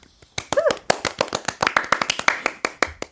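A quick run of sharp hand claps, around twenty in a steady, slightly uneven rhythm. They are crisp and fairly loud, with a short high-pitched vocal sound near the start.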